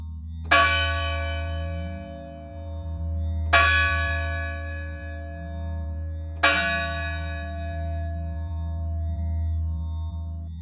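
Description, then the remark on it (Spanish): A village church bell tolls slowly in a death knell at ten o'clock, announcing someone's death: three heavy strikes about three seconds apart, each ringing out and fading over a steady low hum. “Así transcurrió la mañana hasta que, en punto de las 10, las campanas de la iglesia redoblaban con un tono triste.”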